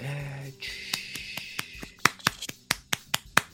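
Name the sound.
applause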